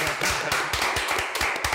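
A crowd applauds steadily to welcome a guest who is a director, dubbing artist and teacher, many hands clapping in a dense, continuous patter with no voices over it.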